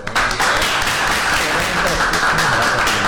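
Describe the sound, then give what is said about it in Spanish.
A crowd gives the team a strong round of applause, a dense, loud wash of clapping that carries on for a few seconds, with faint voices mixed in beneath it. “Antes de pedir un fuerte aplauso al equipo.”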